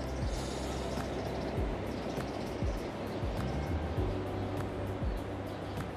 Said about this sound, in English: And as you hear the waves crashing on the shore, as you hear the birds chirping in the background, keep breathing.